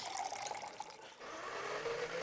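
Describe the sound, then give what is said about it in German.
Liquid is poured steadily into a cup, a bright splashing stream whose pitch rises slightly as the vessel fills, lasting a couple of seconds with no voices. “Wenn ich jetzt frage, hat sich das Geräusch vom Einschenken vorhin so oder so angehört, können Sie sich erinnern?”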